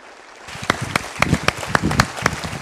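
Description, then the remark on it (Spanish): A short burst of applause for a speaker starts after a brief quiet moment: a few people clapping in a steady, fairly quick rhythm, with sharp individual claps standing out over a soft hiss. No voices. “Sí se merece un aplauso, ¿verdad?”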